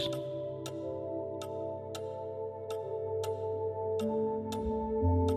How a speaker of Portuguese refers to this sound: tão tranquilo ouvir os ponteiros do relógio, da sala, do corredor.